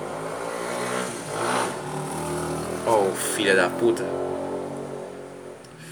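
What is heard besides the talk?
motorcycle passing by outside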